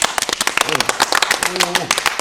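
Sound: clapping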